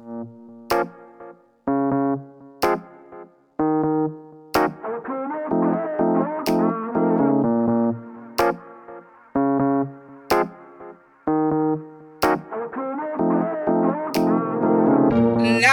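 A blues rock song from an EP released in 2016, with loud, distorted electric guitar chords punctuated by sharp hits about every two seconds, riffs filling the gaps and building in density. No singing or talking.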